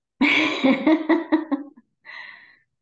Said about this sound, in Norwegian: Ja, men nå tar vi en pust, da.